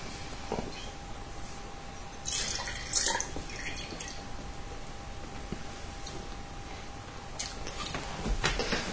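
Water drips irregularly, with a few soft splashy bursts over a steady faint hum and low background hiss; no one speaks.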